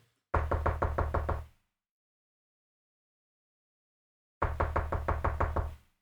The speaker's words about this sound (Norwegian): Hører du det? Jeg hørte en Jeg hørte noe, ja. Var det en bankelyd? Det kommer fra den kjellerdemmen der borte. Å, søren.